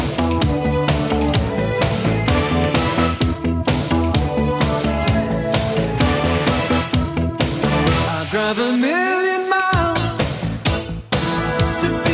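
A loud, upbeat pop song plays on air during a Spanish-language radio call-in show, continuously with a steady driving beat, bright synths and layered melody; near the end a rising vocal or synth line sweeps upward before the beat resumes.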